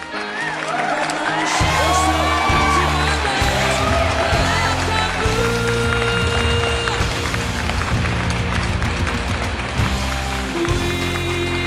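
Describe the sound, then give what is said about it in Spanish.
A crowd cheers and whoops loudly and steadily for about twelve seconds, applauding a woman who has just won a ticket, with scattered shouts and clapping over a thumping, rhythmic low beat that runs underneath throughout. “El boleto a huevo. Aplausos, maldita sea.”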